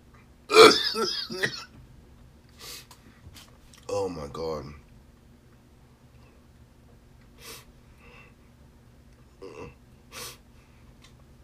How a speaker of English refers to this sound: Oh my god. Ugh. I fucking hate coughing, bro. It's like the worst.